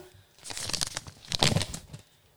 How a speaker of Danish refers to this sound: Jeg har haft travlt med at skrive alle navnene på øh, de indsendte øh, svar øh, ned i min lille kasse her. Mm. Så øh, nu trækker jeg en sædel op af quizkassen.